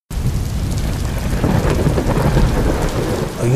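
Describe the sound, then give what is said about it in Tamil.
A sudden heavy rain downpour hisses loudly and steadily, with a deep rumbling low end like thunder, starting abruptly and continuing without pause. No voices are heard. “திடீர்னு உங்கள் கையில் பார்த்தீங்கன்னா ஒரு நீர்த்துளி ஃபீல் ஆகுது என்னடா அப்படின்னு யோசிக்கிறதுக்குள்ளே திடீர்னு பயங்கரமான ஒரு பெரிய மழை பிடிச்சிருது”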